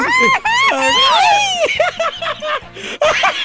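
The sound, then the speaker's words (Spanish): A voice lets out a loud, exaggerated mock scream, high and wavering with swooping pitch, in a few drawn-out bursts over about three seconds, with a laughing quality mixed in, imitating a chef screaming after cutting his finger while slicing tomato. “¿Cómo, ¿Cómo gritó cuando se cortó el dedo el chef?”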